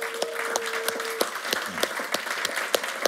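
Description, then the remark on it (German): An audience applauds teachers steadily, a dense wash of many hands clapping with a few sharper individual claps standing out, and a faint voice and a brief tone murmur underneath. “Wir haben hier viele Lehrer, gibt einen Lehrer mal einen Applaus.”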